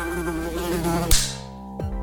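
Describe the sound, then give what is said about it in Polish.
A fly buzzes with a wavering, droning hum, interrupted by a sharp slap about halfway through; a softer thud follows as the buzzing carries on more quietly. “Najmniejsza mucha świata.”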